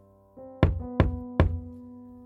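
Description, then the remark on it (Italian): Three firm knocks on a door, evenly spaced and fairly loud, each with a short resonant ring, with no talking. “Hai sentito bussare?”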